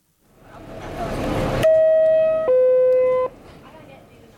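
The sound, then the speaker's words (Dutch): A New York subway train door chime plays two clear, steady electronic tones, the second a descending third lower than the first, after a swell of rumbling station noise. Each tone rings loudly for nearly a second. “Zelfde interval, maar op een andere hoogte.”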